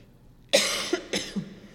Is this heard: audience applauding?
no